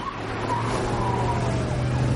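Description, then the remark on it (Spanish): A police patrol car passes by in a town with a steady engine rumble and road noise, faint wavering high tones drifting above it, no voices. “Se cruzan con un coche patrulla que pasa de largo.”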